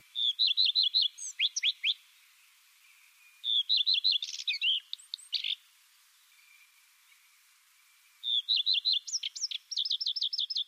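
A common redstart sings in three short, bright phrases separated by pauses, each a quick run of high, sweet notes ending in a scratchy flourish. Clear, with no voices.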